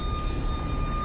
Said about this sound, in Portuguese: Esse barulho que vocês estão ouvindo é do da bomba de gás aqui do posto